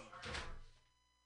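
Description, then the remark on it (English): A single door swings shut with a soft thud and a brief rustle, then fades into quiet. “I'm gonna close the door.”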